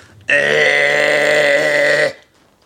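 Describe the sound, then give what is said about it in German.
A voice imitates an electric hedge trimmer with a steady, loud, buzzing drone held for nearly two seconds, rich in harmonics and abruptly cut off. “Heckenschneider, so ein elektrischer, mm.”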